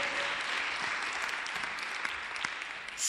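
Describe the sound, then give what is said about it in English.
An audience claps for Jesus, steadily, a dense, continuous wash of many hands applauding at an even loudness for the full few seconds, with no voices standing out. “Oh, clap for Jesus. Clap for Jesus.”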